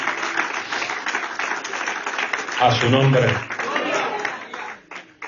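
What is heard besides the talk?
audience applauding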